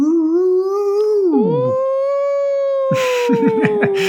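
A wolf howl from the film Greyhound, voiced by actor Thomas Kretschmann as the Grey Wolf: one long, wavering note that sinks then holds steady, loud, before a burst of noise and a rougher, warbling howl at the end.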